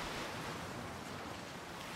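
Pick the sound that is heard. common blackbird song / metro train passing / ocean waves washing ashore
ocean waves washing ashore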